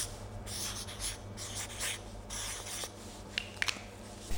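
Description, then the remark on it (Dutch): A marker squeaks and scratches across paper in a series of short strokes as someone draws a symbol, fairly quiet, with a few sharper taps near the end and a low steady hum underneath. “Wij hebben een papiertje en een stift mee.”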